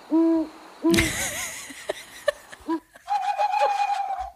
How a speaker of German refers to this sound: Das ist eine App. Das war die ESO-Eule. Die, die App heißt Owl Sounds, also Eulengeräusche.